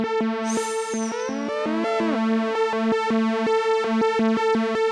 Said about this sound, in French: l'Oberheim TVS Pro, qu'est-ce que c'est euh, C'est une réintroduction d'un synthétiseur existant de deux voix analogiques